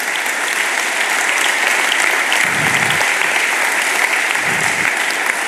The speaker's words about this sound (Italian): Facciamogli un applauso al nostro Signore.